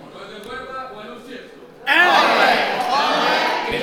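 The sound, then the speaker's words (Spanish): A carnival murga group of former comparsa members, in the contest final, bursts into its battle cry, a loud collective shout, many voices yelling together in a rowdy chant that sustains for a couple of seconds after a quieter stretch of murmuring. “con su grito de guerra”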